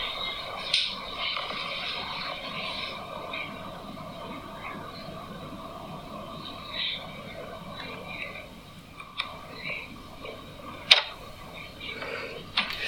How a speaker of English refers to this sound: But it was just this weird clicky noise and the lid jumping on its own.